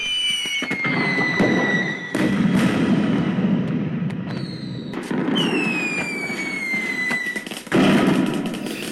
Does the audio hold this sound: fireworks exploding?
yes